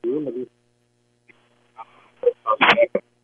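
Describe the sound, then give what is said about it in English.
A caller's voice on a thin, narrowband phone line keeps cutting out, arriving in short garbled fragments between stretches of dead silence, ending in a harsh, distorted burst. “Your phone's not working.”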